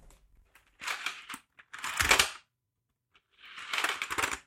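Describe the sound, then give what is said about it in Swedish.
Three bursts of dense clicking and clattering as newly delivered mechanical keyboard keycaps are pressed and rattled, separated by brief pauses of near silence. “Men eh, så idag fick jag faktiskt paketet, så nu har jag nya tangenter att klicka på, nya knappar att klicka på, de är jättemysiga.”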